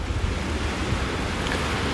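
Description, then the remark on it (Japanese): Steady, rushing surf washes continuously against the shore at Tsukuehama beach in the afternoon, mixed with wind buffeting the microphone and a heavy low rumble, with no voices present. “この机浜ぼーっとしがいがありますなんとなく海を眺めてたんですけど”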